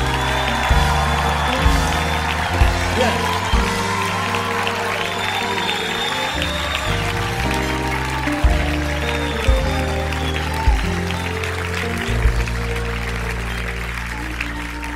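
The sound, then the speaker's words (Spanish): A crowd claps steadily and energetically throughout, giving loud applause for the one who died for them, blending with sustained keyboard-like music that shifts chords underneath, filling the space for the whole stretch. “Que mi alma re al que murió por ti dale un aplauso bien fuerte y un grito de victoria.”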